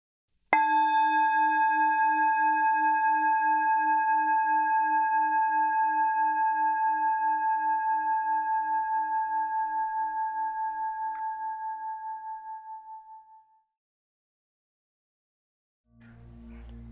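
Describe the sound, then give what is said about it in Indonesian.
A singing bowl is struck once to mark the start of a mindfulness exercise and rings out alone with a clear, shimmering tone that gently wobbles as it slowly fades over about thirteen seconds; after a brief silence, someone begins speaking. “Latihan ini akan dimulai dan diakhiri dengan tanda satu kali bunyi singing bowl.”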